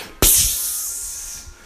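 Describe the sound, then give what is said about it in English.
A voice imitates the sharp, sustained hiss of a freshly opened can of tennis balls, like air rushing out of a pressurized can, starting abruptly and trailing off after about a second. “And I know it sounds crazy, but I, I remember to this day just the just the opening the can and you hear”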